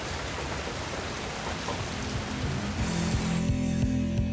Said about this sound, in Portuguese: Começou de repente, né? a chuva.